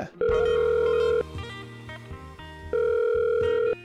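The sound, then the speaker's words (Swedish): A phone's ringback tone purrs twice while a call connects, each steady tonal burst lasting about a second, with a quieter pause between them and faint background noise. “Testa och ring GV.”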